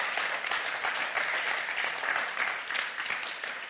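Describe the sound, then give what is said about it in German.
An audience in a church breaks into sustained applause for those working with children, youth and families, a dense, steady wash of many hands clapping at an even loudness for several seconds with no voices on top. “Vielleicht können wir ihnen mal einen Applaus geben.”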